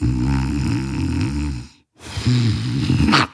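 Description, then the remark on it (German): A voice imitates a man snoring in a corner of a pitch-dark lobby, with two loud rattling breaths, a brief pause between them, the second ending in a raspy, snorting rush of air. “Irgendwann denke ich, Moment, ich höre doch ein Schnarchen da hinten aus der Ecke.”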